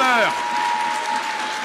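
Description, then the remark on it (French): A crowd at a Jean-Luc Mélenchon rally applauds steadily in a dense, even wash of clapping that fills the whole stretch, with a brief shouted voice at the very start and a faint steady tone underneath. “Écoutez-moi, à ceux qui applaudissent pas, je n'ai pas peur.”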